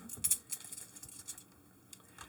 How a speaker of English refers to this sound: Reaching into the Scrooge McDuckian bag of coins.